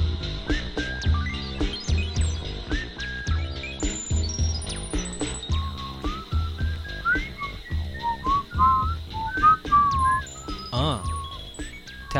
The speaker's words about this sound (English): I could never really whistle that good.